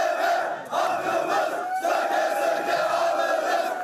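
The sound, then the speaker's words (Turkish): A large crowd chants and shouts in unison at a big rally in Kartal, Istanbul, Turkey, held by people who missed retirement under the EYT law and demand gradual retirement; a loud, dense roar of voices with rhythmic surges and a brief dip before swelling again. “EYT yasasında sigorta gününe takılıp bir günle bile emekliliği kaçıranlar bugün İstanbul Kartal'da büyük mitingde bir araya geldi.”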